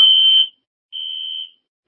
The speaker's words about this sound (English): Now they decided somehow to set off the fire alarm.